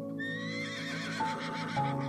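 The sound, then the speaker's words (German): A black stallion standing in a niche at the back of a circular space enclosed by high rocks neighs loudly, a single drawn-out whinny with a wavering, tremulous pitch, alone with no talking, while faint hoof clops sound in the background. “Und ganz hinten, in einer Nische, steht etwas ein Pferd.”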